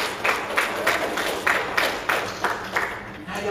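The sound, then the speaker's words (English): An audience claps together in a steady rhythm, about three beats per second, each clap a crisp burst over a low murmur of crowd noise that continues throughout. “y'all clap clapping the last one.”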